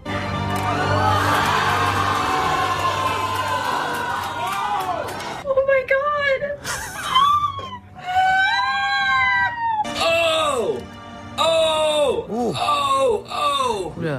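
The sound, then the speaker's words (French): An audience reacts together: a loud swell of crowd noise and cheering, then a run of gasps, groans and drawn-out 'oh'-like exclamations whose pitch rises and falls, in waves separated by brief pauses. “Et dans la salle, pendant la, diffusion du dernier épisode, donc c'était quoi les réactions Alors j'ai pas pu euh, enregistrer de son pendant la diffusion vu que je savais pas euh, ce qui se passait, forcément.”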